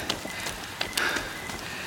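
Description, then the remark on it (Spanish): Steady warm rain on a humid summer night patters onto a hard street surface, a continuous soft hiss broken by scattered sharper drips and splashes, with no voices present. “La lluvia es cálida.”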